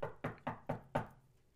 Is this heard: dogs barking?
no